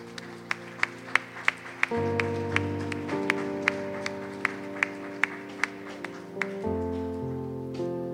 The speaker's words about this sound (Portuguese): Dê uma salva de palmas a Jesus.